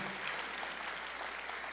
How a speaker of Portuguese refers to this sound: Pode aplaudir Jesus, Ele é maravilhoso, Ele é bom.